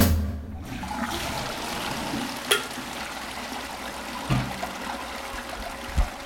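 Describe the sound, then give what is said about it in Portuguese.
A toilet flushes in a reverberant bathroom, a steady rushing of water with gurgles and a few small knocks as the bowl drains, fairly loud, no one speaking. “Até a descarga soa bem nesse banheiro.”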